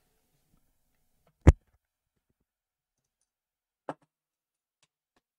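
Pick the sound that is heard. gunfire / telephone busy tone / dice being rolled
dice being rolled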